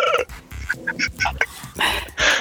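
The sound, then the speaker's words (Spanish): A chicken clucks in a quick run of short, squawky calls, building to a longer, louder harsh squawk at the end, with no talking. “No, güey, El, pollito pintado creció.”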